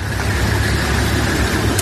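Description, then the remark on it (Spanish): Trucks carrying humanitarian aid rumble steadily past as they enter the Rafah crossing into Gaza, a continuous low engine drone with a broad hiss of road noise, fairly loud, with no voices. “uno de los sonidos de esta noche que lo han difundido los de Hamas es el de los camiones con ayuda humanitaria entrando en el paso de Rafah.”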